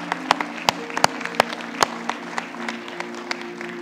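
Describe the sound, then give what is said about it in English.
An audience applauds a worship team in the morning, with scattered sharp claps standing out from a steady patter of clapping, all over a constant low humming drone underneath. No one speaks. “Maybe one more hand clap for these.”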